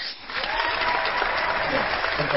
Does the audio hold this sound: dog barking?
no